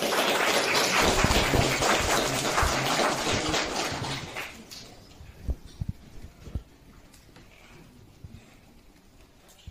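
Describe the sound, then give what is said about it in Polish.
Crowd applause at a rally, called for in honour of party leader Jarosław Kaczyński: dense, loud clapping for about four seconds, then it fades into a few scattered claps and thumps over a quieter murmur. “Bądźmy dumni, jeśli jesteście jest zgodni, oklaski dla niego to wielki człowiek.”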